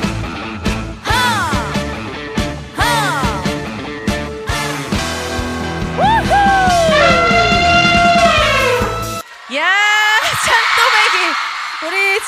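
A Korean trot song plays loudly with a strong steady beat, a bright wavering lead vocal with sliding notes, and full band backing; it cuts briefly near the end before more music continues.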